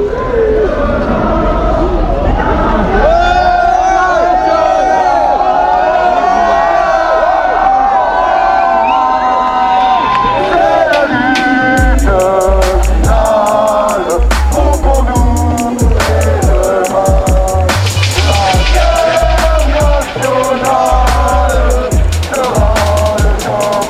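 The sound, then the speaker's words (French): A protest crowd at Place Bellecour, where some demonstrators were held on a bus all afternoon, chants and shouts loudly without a break, many voices overlapping, as a small procession arrives along the rue du Plat beside the square; heavy low thuds begin partway through and continue under the noise. “Alors que sur euh, une des rues à côté, la rue du Plat, arrive un mini cortège.”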